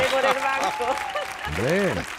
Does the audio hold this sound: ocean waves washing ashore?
no